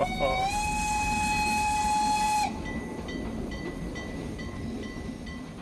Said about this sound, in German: Doch niemand stieg aus, der Zug fuhr weiter, mit wie vielen Leuten?